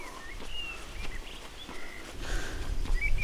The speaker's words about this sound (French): Ah Vous êtes là les oiseaux.